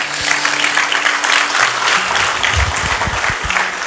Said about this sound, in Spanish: ¿Cuántos creen que esto es una buena iniciativa? Dele un aplauso al Señor si usted lo cree.